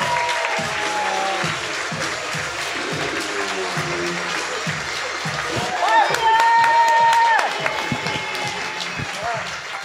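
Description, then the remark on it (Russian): An audience applauds steadily and loudly for about ten seconds as a guest is welcomed onto the stage, with voices and cheers mixed in and a brief high whistle partway through. “поаплодируем”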